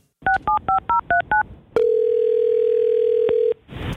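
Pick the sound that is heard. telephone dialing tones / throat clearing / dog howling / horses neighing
telephone dialing tones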